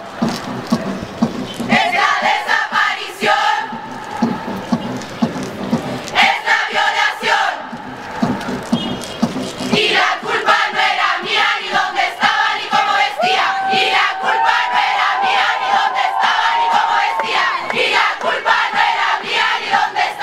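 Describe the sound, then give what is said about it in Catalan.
A large crowd chants the feminist protest song "Un violador en tu camino" in loud, rhythmic unison, the massed voices rising and falling in regular phrases with brief pauses between lines, and a shrill whistle-like tone briefly rising above them. “Per acabar amb la meva secció, us porto la cançó de Un violador en tu camino, molt sonada a les manifestacions del 2019. Escoltem-la.”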